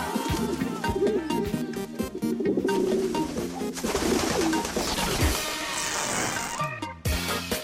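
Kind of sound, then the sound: bird, pigeons cooing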